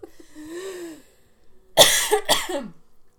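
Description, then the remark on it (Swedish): After choking on water that went down the wrong pipe, a strained, wheezy voiced gasp is followed by two loud, harsh coughs in quick succession, with no talking. “Ni vet när man sätter i fel strupe.”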